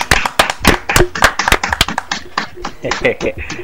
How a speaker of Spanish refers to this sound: vamos a darle un aplauso, mi gente,